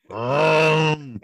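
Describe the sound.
A man vocally imitates a car slowly arriving with a chainsaw noise in place of its engine noise: one steady, raspy drone held for about a second, fairly loud, then cut off with a brief throaty trail.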